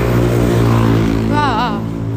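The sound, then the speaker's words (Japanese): A car rumbles past during an outdoor walk, with wind, its engine a loud, steady drone that briefly warbles in pitch midway before settling back into the continuous noise. “鼻声ですいません風の音も入って車の音も入って息切れしててなんだこれって感じだけど”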